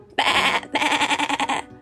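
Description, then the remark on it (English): A goat bleats loudly in two bursts, a short cry followed by a longer, quavering one with a rapid pulsing wobble, then silence. No one speaks. “G G G G G Goat”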